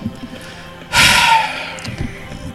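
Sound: heavy breathing into microphone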